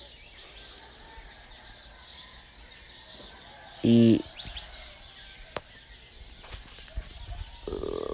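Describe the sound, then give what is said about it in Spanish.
A real, natural dawn chorus of many kinds of birds chirps steadily at daybreak, broken midway by one loud rooster call, with roosters and dogs also in the scene; a voice speaks briefly near the end. “Y básicamente hay pájaros, gallos, perros, algunos perros.”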